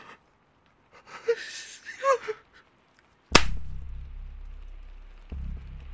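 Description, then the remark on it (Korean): Shaky, breathy gasps, then a single loud, sharp slap as a person slaps their own cheek, wet with cold raindrops, followed by a steady low rumble that continues in the background. No one speaks. “관수는 고개를 흔들면서 자신의 뺨을 몇 번 때렸다. 차가운 빗방울에 젖은 뺨에 짝소리가 나면서 정신이 돌아왔다.”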